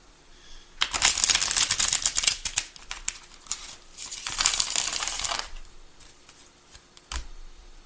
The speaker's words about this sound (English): Right, quick, shuffle these up.